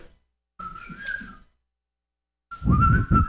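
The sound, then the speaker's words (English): Someone whistles two short, steady notes separated by a brief pause, the second louder and more breathy, with a slight dip in pitch at its start. No one speaks. “Can you whistle? Who can whistle here?”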